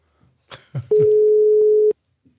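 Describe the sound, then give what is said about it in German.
A telephone dial tone heard while placing a call: one loud, steady, mid-pitched hum lasting about a second, cutting off abruptly, with a few clicks and handling noises just before it starts. “ich höre ein Amt.”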